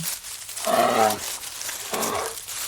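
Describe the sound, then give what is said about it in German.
A bear growls twice, a long rumbling growl followed by a shorter, lower one after a brief pause, with no speech over it. “Der Bär trottet tatsächlich los.”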